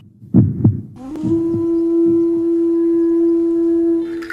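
sound effect, heartbeat pulses

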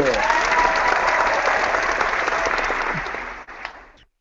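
crowd, audience applause

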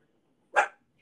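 animal, small dog barking

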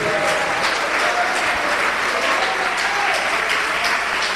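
crowd, applause

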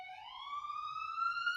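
vehicle, ambulance siren passing

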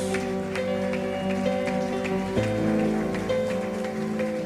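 crowd, audience applauding

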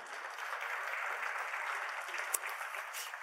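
crowd, audience applauding

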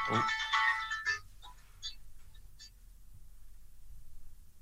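signal or alarm, mobile phone ringing

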